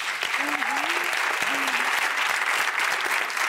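Steady audience applause for the producer of a musical fills the whole stretch, dense and continuous clapping at an even loudness, with a few faint cheers or vocal whoops rising above it early on.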